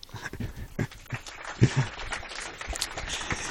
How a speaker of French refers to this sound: Merci à vous et je pense qu'on peut vous applaudir déjà.